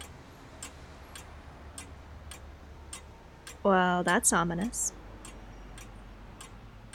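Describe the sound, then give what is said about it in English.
A big, tall English-style grandfather clock ticks steadily once every second, sharp, evenly spaced clicks echoing through a facility. Partway through, a person says a few words over the ticking. “And the thing that you can hear echoing through the facility sounds like a grandfather clock, one of those big, tall English ones.”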